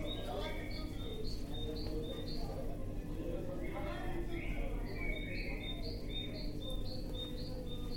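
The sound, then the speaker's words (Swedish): A busy market atmosphere played in an exhibition installation about souvenirs bought on holiday abroad, with a steady crowd murmur and background hum, while birds chirp repeatedly in quick, high bursts throughout, clearly audible above the din. “Så det är ljudet av en marknad du hör här.”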